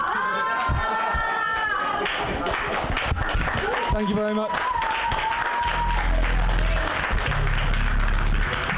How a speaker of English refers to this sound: Keep clapping